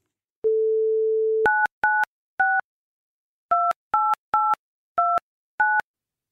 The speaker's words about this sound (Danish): Du kan godt høre, hvor hurtigt jeg tastede nummeret.